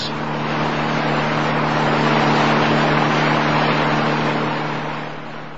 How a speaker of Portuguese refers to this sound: Conforme Selma pedira, ele para o carro no local de acesso à vila.